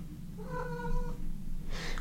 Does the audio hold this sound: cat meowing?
yes